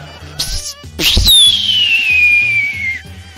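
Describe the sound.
A voice imitates a whistling firework that explodes and throws out coloured lights: a sharp burst, then a long, steady high whistle gliding slowly downward for about two seconds before cutting off, fairly loud.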